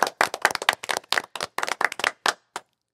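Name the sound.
studio audience applause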